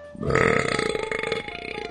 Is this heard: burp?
yes